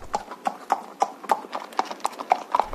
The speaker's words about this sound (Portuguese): Pelo som que estamos a ouvir, parece que vamos falar de cavalos.